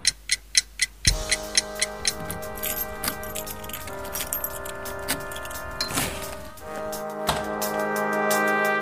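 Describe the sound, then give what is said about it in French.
A clock ticks in a steady, even rhythm, crisp and loud at first, then continues beneath a swelling layer of sustained, bell-like ringing tones that build toward the end. It is a huge clock projected on the Temps Machine building, its digits formed by bubble-gum bubbles coming out of mouths. “une immense pendule projetée euh, où on voit des bouches et les, cristaux liquides qui forment les chiffres en fait c'est des bulles de chewing gum qui sortent de ces bouches c'est plutôt plutôt rigolo et ça personnalise fortement le, le bâtiment”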